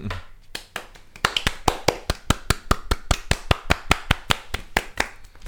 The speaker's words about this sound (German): So ja. einen schönen Applaus.